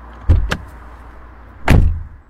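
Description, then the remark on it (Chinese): A car door being opened: two sharp latch clicks in quick succession, then after a pause a single heavier, low thunk of the door. No voices. Jiang Zhiping opens the car door for Lin Feng after parking at the Lingxi Grand Hotel in the provincial capital. “江之平先是走了出来，然后给林峰开门。”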